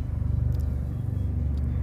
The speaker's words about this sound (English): There's a helicopter.